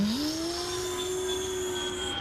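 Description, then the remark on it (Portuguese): An Xbox Fat game console's cooling fan roars loudly and steadily, a constant whirring hum with a tone that rises briefly at the start and then holds. No one speaks. “Nossa senhora, atual geração aí, o meu Xbox Fat aqui, falta levantar voo, às vezes vai...”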